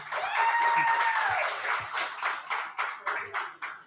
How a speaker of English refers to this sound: Now I ask you to applaud after we get to say championship, championship, championship, championship, two state championships. Can we have a round of applause for the team, please?